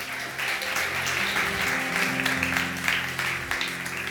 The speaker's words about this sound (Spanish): ¿Cuántos pueden dar un aplauso a esa palabra?